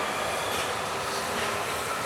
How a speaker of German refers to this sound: Für mich ist es kaum vorstellbar, wirklich nichts vom Anfahren der Bahn zu hören.